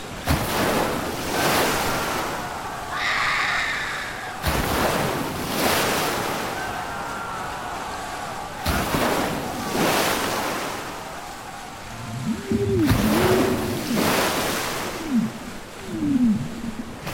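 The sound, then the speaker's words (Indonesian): Ocean waves crash repeatedly in loud, broad surges roughly every few seconds as water rushes in and slams toward people, with a steady roar between them and a few faint high-pitched cries near the end. “Belum sempat gue duduk, air langsung menerjang dan menghantam ke arah kita.”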